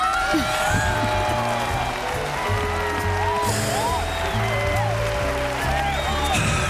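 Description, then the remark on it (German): A crowd claps steadily throughout, a dense wash of applause with scattered voices and some tonal sounds mixed in, fairly loud and sustained for several seconds. “Ja, klatschert.”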